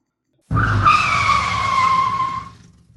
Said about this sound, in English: hit the brakes, and the truck came slithering and fishtailing to a stop at the gate of the meat-packing plant.